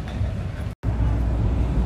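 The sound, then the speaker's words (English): A steady, loud rumble of a train running underground, heard from inside a carriage, with deep low-end roar and hiss that briefly cuts out before resuming. “Okie dokie, artichoke, you are on the train.”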